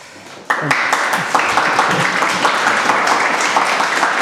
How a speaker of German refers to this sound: ich habe es vorgesehen, dass du jetzt auch noch Applaus bekommst. Vielen Dank.